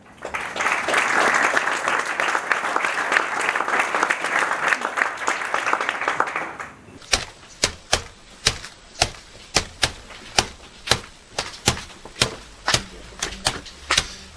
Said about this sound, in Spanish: Aplaudimos.